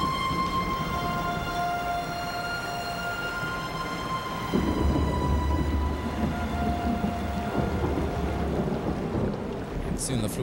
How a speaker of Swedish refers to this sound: det är ju som du sa tidigare, den här syndafloden verkligen.